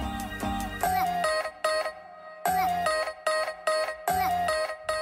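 Music plays: a bright, electronic melody loops a short phrase about three times, each repetition punctuated by brief pauses, with a steady bass underneath and no voices.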